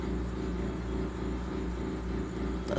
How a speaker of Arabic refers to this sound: صوت المكيف شو اسوي فيه يعني احط له منشفة اقول له اسكت ولا شو اسوي اتحملوني اليوم